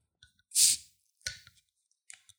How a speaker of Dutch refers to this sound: het lijkt meer op een wijnfles. Ja, nou, barley wine. ja, inderdaad. Ik, nee, ik, ga hem eens even openen